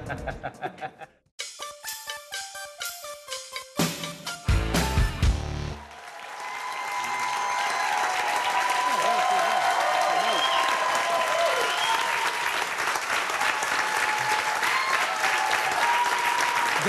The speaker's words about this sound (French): Non, mais c'est mérité. Si on y allait au mérite, on n'aurait pas encore terminé avec les applaudissements, je vous le dis.